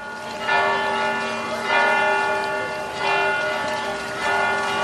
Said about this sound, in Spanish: Suenan las campanas de las iglesias en la ciudad de Belén, pero este año no habrá celebraciones públicas.